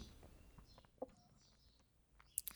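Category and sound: bird, small birds singing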